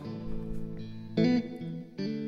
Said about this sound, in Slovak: najprv vám pustíme dve skladby. Prvá skladba je …, ktorú určite budete poznať už podľa úvodných tónov